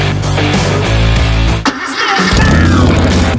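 A loud CBR1000RR sport motorcycle engine revs hard, dips briefly around the middle, then roars back up in a rising, aggressive whine with no voices.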